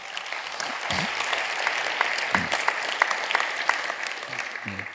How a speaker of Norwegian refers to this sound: Ja, eller gi dem en skikkelig klapp.